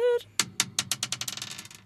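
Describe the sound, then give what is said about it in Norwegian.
A die rolls across a tabletop, a quick series of sharp clicks that speed up and soften as it tumbles to rest. A short hummed voice sound comes just before. “Rulle terning, sjekke.”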